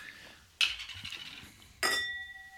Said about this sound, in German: Oh. Und ähm, die klingen schon mal sehr gut, die Gläser.